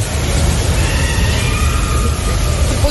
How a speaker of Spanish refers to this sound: Escuchen ah, el tormentón. Bueno, no, sí, el tormentón, pero con la lluvia cayendo del cielo falso.